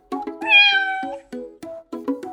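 A cat meows: a long, rising and falling meow, then a quick run of short, clipped mews and chirps. No one speaks.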